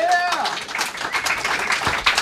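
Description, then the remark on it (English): A festival crowd claps and applauds steadily for a couple of seconds, a dense crackle of many hands with a brief whistle or cheer near the start. “uh, hey, guys, uh, who's sticking around for the festival? Round of applause.”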